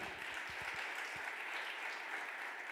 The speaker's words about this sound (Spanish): Vamos, den un aplauso fuerte al Señor.